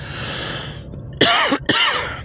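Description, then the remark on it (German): Two short, dry coughs in quick succession from a dry throat, a side effect of blood pressure tablets, with a faint hiss of background noise before them and no talking. “mir ist aufgefallen, dass ich auch in der ersten äh, Folge äh, heute Morgen im Hinteil ich regelmäßig gehustet habe”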